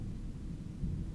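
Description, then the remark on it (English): A low, muffled rumble of thunder from a monsoon storm in Phoenix rolls steadily and quietly, with no voices, ending on a brief faint click. “I don't know if y'all could hear that, but that's the thunder.”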